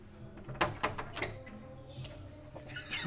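A door opens and shuts as someone walks out, giving a few quiet clunks and rattles followed by a soft sliding swish.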